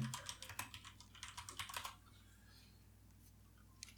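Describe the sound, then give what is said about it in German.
Rapid typing on a computer keyboard, a quick run of crisp key clicks lasting about two seconds, then stopping, leaving quiet room tone with a faint click near the end. “Und das tippt mir übrigens ich, das ist nicht Lino.”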